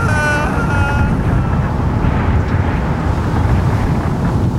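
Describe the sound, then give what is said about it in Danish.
A loud, steady roar of hurricane wind, blowing up to 250 km/h outside the storm's eye, buffets continuously, dense and rumbling, with a few whistling high tones at the start that fade into the churning gusts. “Jo, fordi at uden for orkanens øje blæser det helt op til 250 km i timen!”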